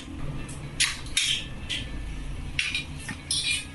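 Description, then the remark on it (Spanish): A can of striped tuna being opened by Malambo mayor Rumenige Monsalve in a video: a series of short, bright metallic scrapes and clicks, about half a dozen in irregular succession, over a steady low background hum with no one speaking. “Voy a destapar el atún.”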